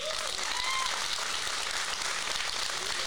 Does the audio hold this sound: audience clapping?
yes